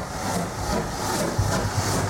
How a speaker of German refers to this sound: Langsam setzte sich die riesige Dampflok mit all den Wagen, die voll waren mit Flüchtlingen und Soldaten, in Bewegung.